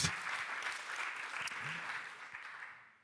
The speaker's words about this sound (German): Und übrigens, vielleicht fragst du, ah ja, es klatscht jemand. Sehr gut.